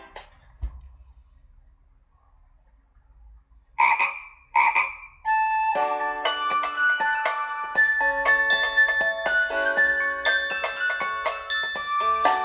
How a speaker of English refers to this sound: Gang, gang, went the little green frog one day.